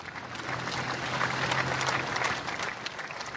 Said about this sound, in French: Mais 20 kilomètres d'un défilé rempli d'émotions, à l'arrivée, son équipe, la Bahreïn, passe la ligne sous des applaudissements pudiques.